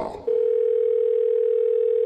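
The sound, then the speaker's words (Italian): A steady, unbroken telephone tone of an outgoing call to an electrician hums at one pitch for nearly two seconds, clear and fairly loud, after a brief muffled rustle at the start. “Prima telefonata all'elettricista.”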